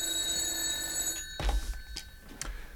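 A telephone bell rings with a steady, metallic trill for about a second, then breaks off into a few sharp clicks and clunks, like a receiver being lifted. No one speaks.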